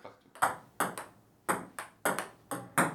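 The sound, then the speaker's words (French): A table tennis ball clicks in a quick, irregular rally during a match, about eight sharp bright taps in three seconds, each with a short ringing decay, clear with no voices. “ce qui fait donc maintenant 5 euh, pour NJ et 4 pour Cheboka, car vous avez entendu le dong”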